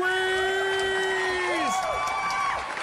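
An audience cheers over steady clapping, with sustained high whoops and yells that rise and fall in pitch, holding at full volume for about three seconds.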